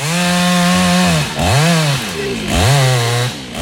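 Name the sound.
chainsaw running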